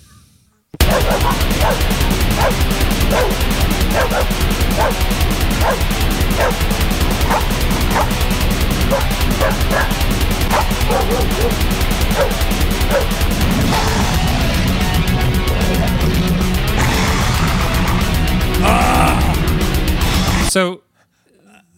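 Dogs bark again and again in sharp, loud bursts over dense, distorted death metal, the barks spaced almost rhythmically through the first half before the heavy music carries on alone.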